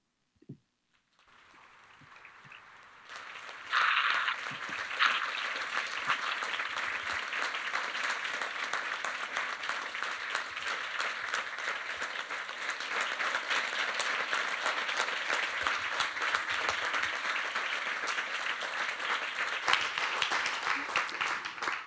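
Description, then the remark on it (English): A crowd bursts into sustained applause, a dense, even wash of many hands clapping that swells quickly after a brief quiet start and holds steady for about twenty seconds. “Becky, I hope you're hearing the applause”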